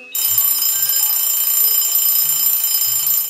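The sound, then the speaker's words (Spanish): An alarm clock rings loudly and continuously for about three seconds, a harsh, dense metallic bell tone that starts abruptly and cuts off sharply, with no voices. “Y justo en ese momento sonó la alarma de su reloj”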